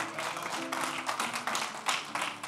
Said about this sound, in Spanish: ¿Cuántos dicen amén? Denle un aplauso fuerte al Señor porque Él es bueno.